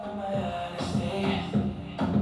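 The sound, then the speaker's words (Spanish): A reggaeton dembow beat plays through a small loudspeaker, a steady syncopated thump of kick and snare hits under sustained tones, fairly loud and continuous with no voices. “Bueno, ese, ese sonido es el sonido, es el, lo, como dirían los profesionales del perreo, es el dembow.”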